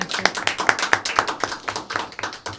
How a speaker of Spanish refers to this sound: Bueno, le aplaudimos a la ganadora y felicitaciones.